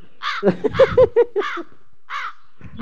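A crow caws repeatedly, a quick run of harsh, raspy calls followed by a pause and a couple more scattered caws, loud and clear with no talking.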